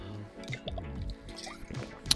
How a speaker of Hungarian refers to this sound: bocsánat, iszom egy kortyot,